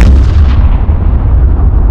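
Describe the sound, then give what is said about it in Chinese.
A loud, sustained explosion on a ship's bridge during an attack by Minmatar warships rumbles through, heavy booming bass with crackling noise on top, holding steady for the whole two seconds with no voices. “剑桥里发生的爆炸打断了他的话。”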